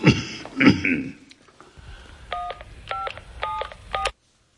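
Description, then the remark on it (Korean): Four quick electronic telephone keypad tones beep in steady succession, each a clean dual-pitched dialing beep, as a call is placed to the then senior economic secretary, following a short burst of throat clearing or coughing at the start. “…수석이 전화를 건 사람은 당시 경제수석 한의원이었다.”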